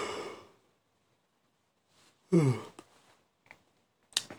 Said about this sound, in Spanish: Perdón por si estoy bostezando a cada rato, pero. Este. Tengo sueño. tengo sueño